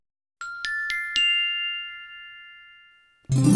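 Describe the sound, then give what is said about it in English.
A small bell is struck four times in quick succession, its bright ringing tone lingering and slowly fading for a couple of seconds before another sound abruptly cuts in. “Wash the dishes, wipe the dishes, ring the bell for tea.”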